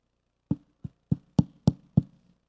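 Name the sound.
knocking on a door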